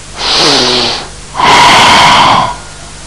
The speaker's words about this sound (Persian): میخوام شروع کنید به نفس عمیق کشیدن نفس را از بینی داخل بکشید و از دهان خارج کنید صدای نفستون رو بشنوین